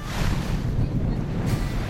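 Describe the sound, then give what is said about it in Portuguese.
A boat rumbles steadily over ocean waves on a trip of over an hour to the Alcatrazes Archipelago, about 40 km off the coast of São Paulo state, Brazil, passing rain-laden clouds; low engine drone, rushing water and gusty wind buffeting, no voices present. “No caminho de mais de uma hora de barco, passamos por nuvens carregadas de chuva.”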